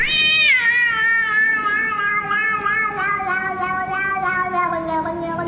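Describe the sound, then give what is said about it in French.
A cat lets out one long, drawn-out meow that wavers and bends in pitch over several seconds, sounding oddly strained and unusual, loud with no one talking. “Le mec, il a un chat qui miaule d'une façon très très bizarre quand même.”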